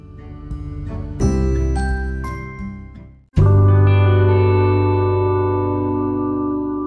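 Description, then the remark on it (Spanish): A short stretch of instrumental music: layered sustained chords with bright, reverberant tones, a brief drop near the middle, then a loud, rich held chord that slowly fades. No voices. “Ya estamos volviendo con las aplicaciones y les pido que se queden después de escuchar este, eh, este trecho de música.”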